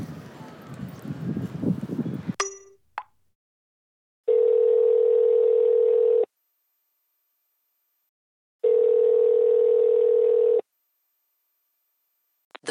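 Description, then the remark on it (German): A phone ringback tone sounds twice, long steady buzzing pulses separated by silence, after a brief burst of noisy rustling at the start; the call goes unanswered. “Ich erreiche dich nämlich nicht mehr.”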